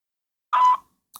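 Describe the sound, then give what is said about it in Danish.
A single electronic beep from a voicemail answering machine, steady and moderately loud for about a quarter second after silence, followed by a brief faint noise at the very end. “Venligst indtal en besked efter biptonen.”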